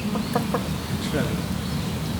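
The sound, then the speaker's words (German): A chicken, one of several roaming around, clucks in a few short, quick bursts over a steady low background rumble, with a couple of brief higher calls mixed in, as it follows a man walking it. “der geht jetzt hier gerade mit einem der Hühner, die hier rumlaufen, Gassi, indem er indem es ihm folgt”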